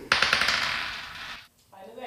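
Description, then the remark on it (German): A die is rolled again, landing on a six, giving a quick burst of sharp clattering clicks that settles into a fading rattle for about a second, followed by a brief pause and a faint softer sound. “Dann äh, darfst du deinen Würfel nochmal rollen.”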